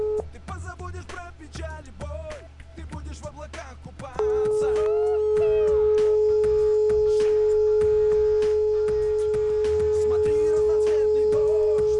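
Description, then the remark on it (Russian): A few seconds of busy background sound give way to a loud, steady electronic phone tone that holds unbroken at one pitch until the end, the ringback tone of an outgoing phone call being placed. “Звоню.”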